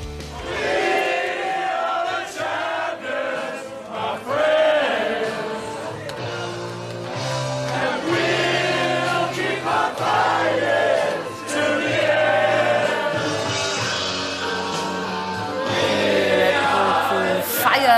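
A large crowd sings a victory anthem together, many voices blending into a loud, sustained chorus that swells and holds steady for the whole stretch, with a deep bass line beneath.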